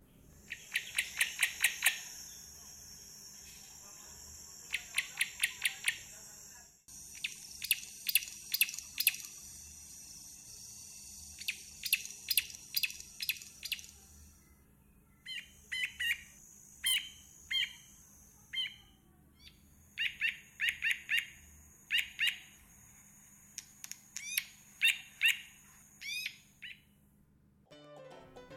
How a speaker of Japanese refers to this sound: どんな風に鳴くかというと石と石をぶつけ合ってカチカチ鳴らすような音だったり時計のアラームのように鳴いたりします英語ではグレイバックとカマルプテラというんですが鳴き方が羊のメイメイ鳴くのに似ているので別名メイメイ虫食いと呼ばれていたりするんですよ